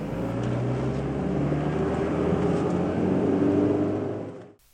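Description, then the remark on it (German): A car's engine and road rumble hum steadily, a continuous low drone that eases off and fades out right at the end as the car slowly brakes on reaching the city limits. No one speaks. “bremst den Wagen langsam runter, als sie die Stadtgrenze erreichen.”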